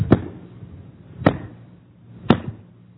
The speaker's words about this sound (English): chop of the wood, the axe hitting the wood.